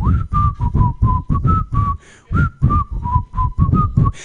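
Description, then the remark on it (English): A person vocally imitates the theme song of the TV show Friends as if farting it, producing about a dozen short, buzzy, whistle-like notes in a bouncy rhythm with a brief pause midway, loud, with no words. “Just when I when I fart the, the theme song, it kind of sounds like.”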